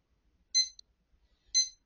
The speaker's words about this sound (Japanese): ちょうどですね、あの、タイマーが鳴りましたので、まず私の朝はこれを止めることから入ります。誰でもそうです。ほとんど私はですね、あの、目覚まし時計は自分のメットの右横に置いてあることからですねは、いまあ、右手で止めるというのが私のまずのモーニングルーティーンになります。